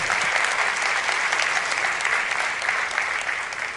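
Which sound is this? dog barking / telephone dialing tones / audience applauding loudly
audience applauding loudly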